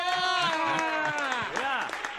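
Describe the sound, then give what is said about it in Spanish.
Steady hand clapping in a quick, even rhythm welcoming comedian Franco Escamilla, partly buried under a loud, sustained voice that slides down in pitch and swoops up and down near the end. “Eh, yo también me aplaudo solito.”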